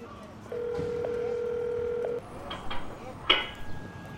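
An apartment building intercom keypad with a scrolling screen gives a steady electronic tone for about a second and a half, followed by a few soft clicks and a brief, higher beep.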